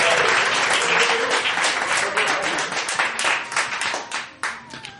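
An audience bursts into sustained applause, dense overlapping claps filling the whole stretch, loud at first and gradually thinning and fading toward the end.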